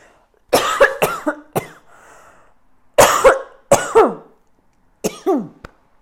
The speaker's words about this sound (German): Meine Güte. Ich habe mich heute Morgen verschluckt und seitdem habe ich so einen ganz fiesen Hustenreiz hinten drin sitzen.